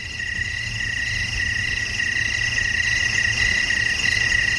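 A dense, unbroken chorus of night crickets trills steadily at a high pitch, with a faint low rumble underneath and no voices.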